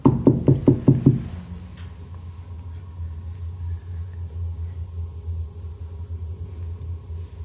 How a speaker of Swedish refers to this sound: Vi hör liksom ett, eh, någon som knackar på dörren där uppe.